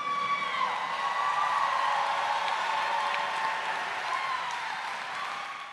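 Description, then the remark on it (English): An audience applauds steadily for several seconds for a guest who is one of about 13 Black billionaires in America, a dense, even wash of clapping with some whoops mixed in, easing off slightly toward the end. “Wait, there's no claps for that?”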